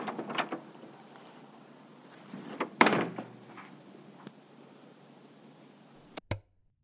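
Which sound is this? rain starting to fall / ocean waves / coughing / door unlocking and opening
door unlocking and opening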